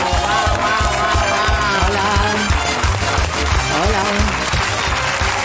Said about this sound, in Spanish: The Morning Show en Apple TV y hoy están con nosotros las protagonistas y productoras de la serie Jennifer Aniston y Reese Witherspoon. Un aplauso para ellas.